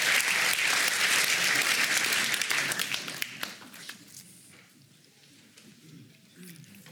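An audience applauds the evening's first speaker in a dense, steady burst of clapping for about three seconds, then the claps thin into a few scattered taps and fade to quiet murmuring.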